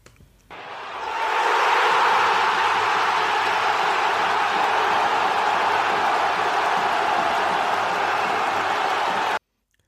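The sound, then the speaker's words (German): A large crowd cheers and roars steadily for about nine seconds for the listener of the week, swelling quickly at the start, holding loud and dense throughout, then cutting off abruptly. “Dann, ähm, ja, Kollege Ed Didov äh, auf Twitter, das ist dein Hörer der Woche, Jubel.”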